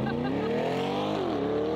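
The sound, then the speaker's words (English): A silver hybrid Corvette sports car by General Motors, with the Z06 V8 in the back (600 horsepower) plus 400 horsepower up front, about 1,000 horsepower in total, revs hard, its harmonic whine climbing steadily in pitch, dipping briefly, then rising again at a loud, constant volume with no talking over it. “Oh, dude, it rips. Doesn't sound like a hybrid to me.”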